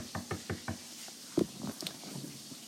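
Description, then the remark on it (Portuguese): Four quick, evenly spaced knocks on a door, fairly crisp, followed by a heavier single thump and some faint rustling. “Ele fala, ele bateu na porta.”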